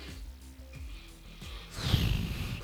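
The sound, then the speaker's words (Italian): A single forceful nose blow, a rough, breathy burst of air that swells near the end and lasts under a second, after a stretch of quiet room noise. “ancora devi soffiarti il naso, hai rotto il cazzo, basta, basta con tutta sta moccola.”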